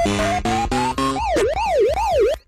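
A classic 1980s Pac-Man arcade game sound effect: a run of buzzy electronic tones stepping upward in pitch, then a loud, looping warble sweeping up and down like a siren, with no voices.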